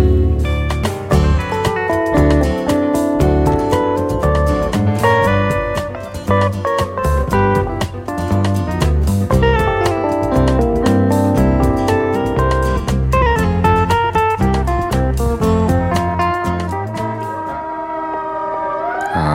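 Two guitars play together in a lively, continuous duet, with bright plucked notes weaving over a steady bass line at a fairly loud, even level, and no voices.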